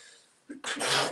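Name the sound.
sneeze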